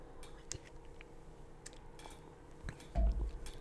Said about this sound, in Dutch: Ik neem even een slokje.